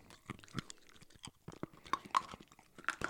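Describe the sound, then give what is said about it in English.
Quiet crunching of crunchy, salty black licorice candies being chewed, with a steady run of sharp, irregular bites and cracks over a few seconds and no talking. “These are like crunchy, good and plenties.”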